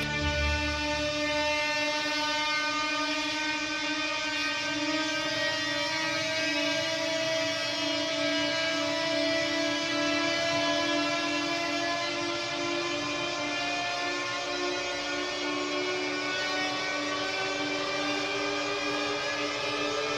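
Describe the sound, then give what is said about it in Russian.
A harsh, strained prepared cello, bowed, holds one long, grinding drone with rich, buzzing overtones, steady and unbroken for the whole stretch with no voices. “А вот Джокер — истерзанная препарированная виолончель.”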